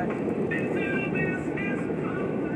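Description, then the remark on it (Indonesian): A train rumbles past, a loud, steady roar of wheels and carriages with faint high metallic squealing tones cutting in and out. “anjing ada kereta, anjing ada kereta.”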